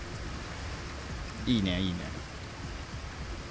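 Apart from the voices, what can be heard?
rain falling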